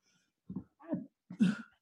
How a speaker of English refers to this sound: bless you.